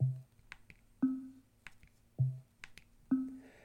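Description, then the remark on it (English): Four short electronic tones from the mute toggle at the 9 o'clock position of an Echo smart speaker, alternating between a lower mute tone and a higher, brighter unmute tone, each preceded by faint button clicks. No one speaks. “To the left of it, at the 9 o'clock position, we have the mute toggle that will allow you to mute and unmute the echo, which sounds like this.”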